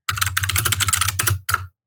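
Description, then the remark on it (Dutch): Rapid typing on a computer keyboard, a dense burst of clattering keystrokes for about a second and a half, with a short pause before a final quick flurry. No voices. “Ik zal even capslock aan.”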